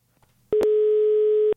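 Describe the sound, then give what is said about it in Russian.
A long telephone dial tone on a listener's call to a radio phone-in show: one loud, steady, unwavering hum at a constant pitch that holds for about a second and then cuts off abruptly, with no voices. “длинный гудок”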